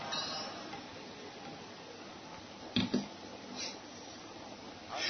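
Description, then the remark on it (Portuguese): A quiet sip of water from a glass: a pair of soft clinks midway, a faint slurp, and a low room hiss around it, with no one speaking. “Tá, vou dar mais uma bicada aqui na água”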